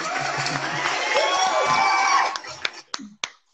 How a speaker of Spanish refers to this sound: Aplauso. Un aplauso a la berenjena por ser tan útil.